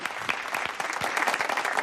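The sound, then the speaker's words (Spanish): A small crowd claps steadily in a dense, continuous patter of many hands, at moderate volume throughout, with no one speaking; applause for Frank Estrada and his symposium on cryptocurrencies on the radio show Desayuno con liantes on RPA, the Asturian regional radio. “Un aplauso para Frank Estrada y su simposio sobre las criptomonedas.”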